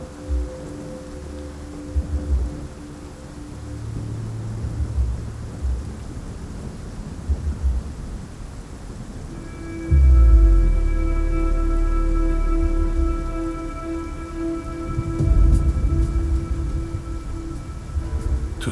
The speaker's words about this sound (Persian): خنده ای که با صدای رد و برق یکی میشه. بارون شروع به باریدن میکنه و مزرعه خونین رورکو میشوره